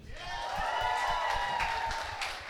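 An audience breaks into applause, a dense wash of many hands clapping at once, steady and fairly loud for a couple of seconds, with a faint murmur of crowd voices mixed in.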